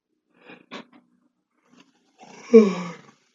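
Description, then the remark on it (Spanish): A drawn-out human yawn, rising into a strained, groaning peak before trailing off, preceded by a few faint breathy rustles; fairly loud, with no talking. “estaba bostezando y no escuché el consejo de del día, perdón.”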